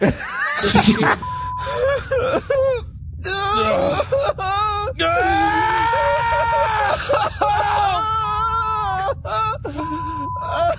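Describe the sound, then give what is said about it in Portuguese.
Exaggerated cartoon-style wailing and sobbing cries as characters break down after returning to their ship in the garage, loud and continuous for several seconds, with high warbling moans rising and falling over a steady background noise, broken by brief gasps. “E aí eles, aparece eles voltando pra nave na garagem, personagem Cara, é entram e aí eles desabam. Mori, os, os gritos de choro.”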